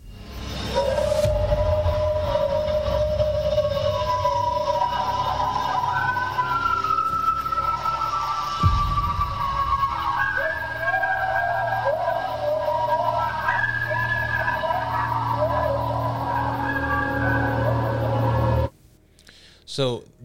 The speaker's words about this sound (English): then at some point coyotes begin to join in on the howling